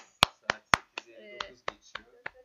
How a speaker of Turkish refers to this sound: Aa bu arada alkış var.